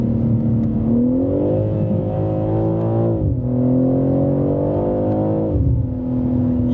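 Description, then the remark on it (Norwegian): A BMW M3 Touring on winter tyres accelerates steadily while cruising, its engine tone rising, then dropping briefly at two quick upshifts before climbing again, working up towards seventh gear. The drone is loud, with no talking. “Nei, altså sånn når jeg ligger og cruiser nå, så bare fomp, fomp, fomp, så er den plutselig oppe i sjuende gir.”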